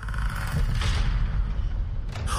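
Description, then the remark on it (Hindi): The doors of Hotel Rajmahal burst open by themselves with a loud, heavy bang that rolls into a deep, sustained rumble lasting a couple of seconds, with no voices present. “तभी अचानक से होटल राजमहल के दरवाजे अपने आप एक धड़ाक की तेज आवाज के साथ खुल गए”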